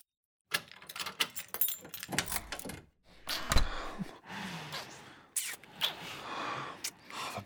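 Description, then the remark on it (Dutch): Keys jingle and clink in a quick flurry of metallic rattles mixed with rustling as a man digs them out of a woman's oversized handbag, with no talking. “Adam zoekt ze in mijn tas en in een nanoseconde vist hij mijn sleutels eruit.”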